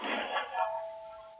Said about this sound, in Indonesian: dia dengar suara lonceng bel kenceng banget.